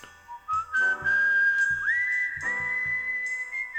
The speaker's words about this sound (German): Und dann haben wir geschrieben Cinematic. Da kommt Pfeifen.